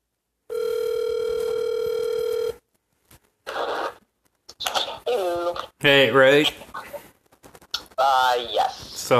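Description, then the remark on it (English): A steady electronic telephone hold tone drones for about two seconds, then cuts off, followed by people talking in short bursts. “Put you on hold just for a second here.”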